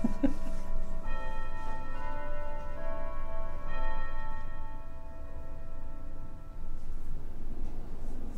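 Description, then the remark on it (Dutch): A church bell strikes twelve o'clock with slow, resonant strikes, each hum lingering and overlapping the next before fading out, heard over a steady low background rumble. “Klokslag 12 uur.”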